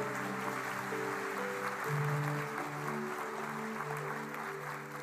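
A crowd claps steadily and densely for several seconds in praise to God during an evening sermon, a full, continuous wash of applause over sustained keyboard chords held beneath it, with no speech.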